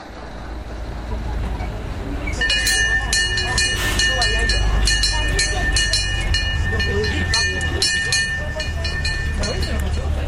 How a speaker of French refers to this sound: voilà Jean-Louis qui est le conducteur du petit train. Il termine son tour avant de partir déjeuner